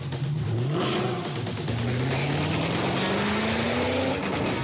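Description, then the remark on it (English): A Mercedes-AMG GT four-door coupe's powerful engine revs and accelerates, its loud roaring pitch climbing steadily through the gears over several seconds, with no voices. “The GT four door coupe from Mercedes AMG. Because life is a race.”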